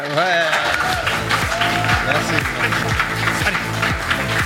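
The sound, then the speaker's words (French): Steady audience applause fills the whole clip, blended with a loud rhythmic musical jingle whose low tones repeatedly slide downward in a regular pattern. “les amis, sous vos applaudissements, c'est l'heure du PowerPoint de Vincent.”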